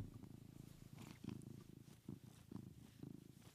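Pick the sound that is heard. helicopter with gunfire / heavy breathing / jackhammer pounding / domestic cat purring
domestic cat purring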